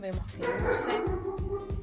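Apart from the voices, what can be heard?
dog barking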